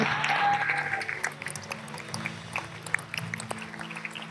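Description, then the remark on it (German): An audience claps steadily for several seconds, a dense crackle of many hands without a clear rhythm, over a low, steady hum. No one speaks. “Lasst uns Andreas einen riesen Applaus und Dank geben.”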